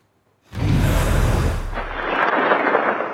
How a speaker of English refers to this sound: Heavy snowfall, thunder, lightning, a potential historic snowstorm is pummeling areas surrounding the Great Lakes, with western New York State in the bullseye.